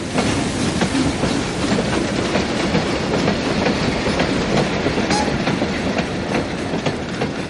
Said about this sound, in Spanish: El tren se aleja expulsando grandes nubes de humo y vapor.